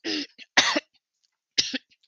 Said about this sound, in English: so the cough is still ongoing.